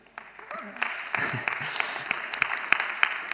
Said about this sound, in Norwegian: Jeg bruker alltid si det, dere må bestemme dere. Enten må dere klappe ordentlig, eller så må dere la være. Skal dere klappe for det? Ja.